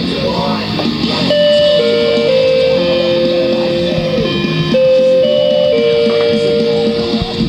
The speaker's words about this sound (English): Yep, what you just heard was a doorbell. One day, when I wasn't home, my parents installed it in my room. I guess they thought the doorbell was the only way to get to me without them having to come upstairs.